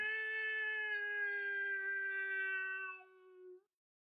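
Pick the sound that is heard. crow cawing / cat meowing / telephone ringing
cat meowing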